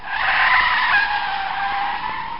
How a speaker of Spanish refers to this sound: Se escuchó un terrible sonido de un claxon desesperado, seguido por el de unas llantas aferrándose al pavimento.